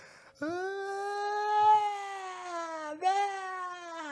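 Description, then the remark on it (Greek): A voice imitates a young woman's sobbing cry with two drawn-out, quavering wails, the first long and steady, the second starting with a sharp rise before trailing on, fairly loud. “Και με το που τη κάνω ε, ε, να τη σταματήσω, ενώ στην αρχή είναι λίγο σβέλτη και πάνω να δραπετεύσει, πατάει κάτι κλάματα μόνη τη και κάνει.”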